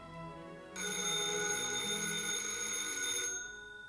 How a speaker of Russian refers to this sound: Телефон. Не бери трубку, он сейчас замолчит. Надо послушать все же. Нет, лежи тихо. Верно, звонят из газеты, я оставил им твой телефон. Не бери трубку, не бери.